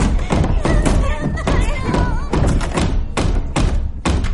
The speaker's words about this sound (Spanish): Ellos se encierran en su cuarto y la madre golpea la puerta.